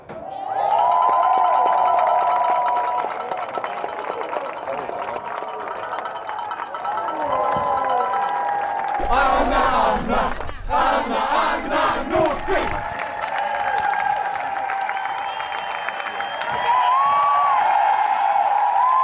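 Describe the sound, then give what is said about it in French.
A large, boisterous golf crowd at the start of hole number 1 in the morning, with the stands half full, roars and chants without pause, with a louder burst of rhythmic clapping and shouting midway before the cheering settles back into a steady din. “on vous propose tout de suite de vivre un peu de l'intérieur le départ du trou numéro 1. C'était ce matin et il y avait déjà beaucoup d'ambiance.”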